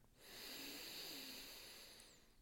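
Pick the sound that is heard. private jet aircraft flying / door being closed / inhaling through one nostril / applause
inhaling through one nostril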